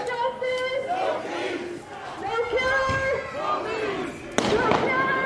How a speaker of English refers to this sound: Firework.